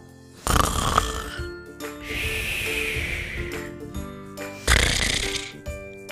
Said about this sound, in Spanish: Cuando llegaron al prado, vieron al lobo tumbado a la orilla del río, estaba dormido y roncaba.